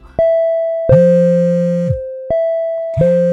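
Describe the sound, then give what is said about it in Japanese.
A phone call and an intercom doorbell come from two people at once: the phone rings with a steady electronic tone while the intercom sounds over it in two loud, buzzy, insistent bursts, with no voices. “今一番会いたくない2人から電話とインターホンで攻め込まれる未来が見えましたがすでに手遅れ現実でもう起きちゃっています”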